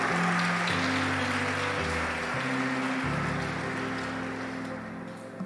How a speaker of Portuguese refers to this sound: Aplauda o Senhor.